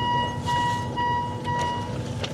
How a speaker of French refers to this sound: Le train ralentit. Pourtant, il n'y a pas de gare.